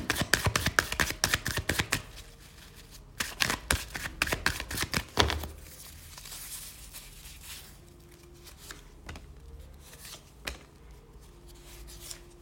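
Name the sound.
shuffling tarot cards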